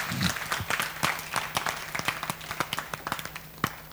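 A crowd claps together in a steady, dense stream of sharp hand claps that thins toward the end into scattered individual claps, with a low hum underneath.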